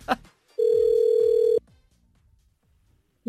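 A single steady ringback tone on an outgoing phone call to a hotel in Kalmar, one long loud buzz lasting about a second, then quiet line noise before the next ring begins.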